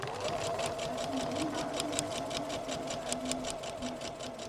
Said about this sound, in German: Morschreuth im Landkreis Forchheim. In der Kulturwerkstatt Fränkische Schweiz sitzen fünf Frauen an ihren Nähmaschinen.